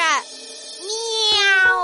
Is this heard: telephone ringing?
no